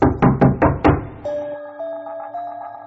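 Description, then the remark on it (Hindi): Five quick, firm knocks on a hotel room door in a steady rhythm, loud, followed by soft sustained musical tones. No one speaks. “पर थोड़ी ही देर में दरवाजे पर एक दस्तक हुई”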